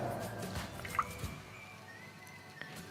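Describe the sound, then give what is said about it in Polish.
A priest pours a small amount of wine from a cruet into a chalice during Mass, heard as a few soft drips and a brief faint splash against a quiet hush. No one speaks. “Ksiądz bierze ampułkę z winem, nalewa odrobinę”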